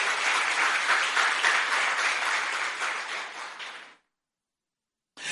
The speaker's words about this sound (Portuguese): Dê um aplauso aí à palavra de Deus. Aleluia.